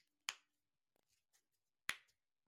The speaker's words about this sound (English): That wasn't a lip smack. That was my knuckle. Oh, my bad. I just went like, like little. You heard that? I did.